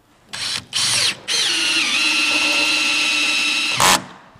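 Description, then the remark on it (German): A cordless drill whirs in two short bursts, then runs in one long, steady drive whose pitch sags as the screw bites, ending with a quick final rev, as screws are driven into climbing holds while setting a climbing route. “Patty hat wieder einen ganzen Tag lang den Akkuschrauber in der Hand.”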